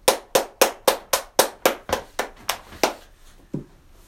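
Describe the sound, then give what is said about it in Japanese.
A mini cajon is struck by hand in a steady run of about a dozen sharp, slapping hits, then a deeper bass thump closes the pattern. There is no talking. “ということで、えー、ミニカホンを叩いてみた第71弾、始めていきたいと思います。”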